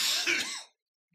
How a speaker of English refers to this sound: I got a cough real bad.